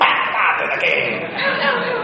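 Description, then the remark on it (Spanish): A person imitates a dog with a continuous stretch of loud vocal barking and growling noises lasting about two seconds, with no clear gaps between the sounds. “gracias por los efectos especiales.”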